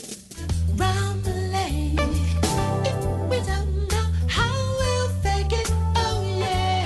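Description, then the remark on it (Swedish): A 1990s pop song from an album plays loud and steady, a stepping bassline under bright layered melody and what sounds like a sung vocal line, full band mix running continuously with no talking over it. “Och på den skivan finns det också en låt som jag tycker väldigt mycket om som låter så här.”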